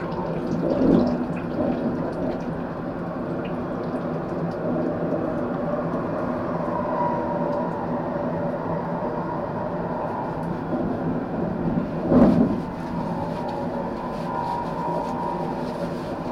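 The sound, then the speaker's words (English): Steady rumble inside a moving train carriage, with a low mechanical drone and a couple of brief clunks, one near the start and one later, as the train approaches a stop at a station. “until the train has stopped, and do not forget your personal belongings.”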